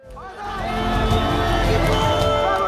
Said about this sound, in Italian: E poi un altro in lontananza, un altro ancora, alla fine centinaia e centinaia di persone si riversano nelle strade urlanti di gioia.